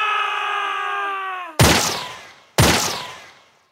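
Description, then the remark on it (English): A long, loud scream with a slowly falling pitch, cut off by two sharp gunshots about a second apart, each blast ringing out and decaying with echo, heard around 2 a.m. at night during a break in a shootout at a surrounded house. “At around 2 a.m., the mayor, who had also joined the fight, heard three loud screams and two shots.”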